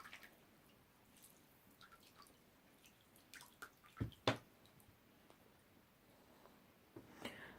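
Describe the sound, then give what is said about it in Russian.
Juice from one squeezed lemon drips into water: a few scattered plinks and splashes, with two sharper drops in the middle, and no talking. “Берете один лимон и выжимаете все в эту воду.”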